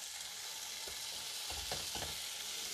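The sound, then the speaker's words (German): Steady sizzling of meat rolls frying in a pan with onions and garlic, a constant bright crackle with a few soft thuds and scrapes as pieces are moved around. No one speaks. “und braten das an mit den Zwiebeln dazu und dem Knoblauch für ein geiles Aroma.”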